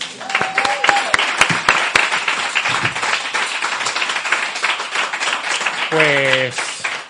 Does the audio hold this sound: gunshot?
no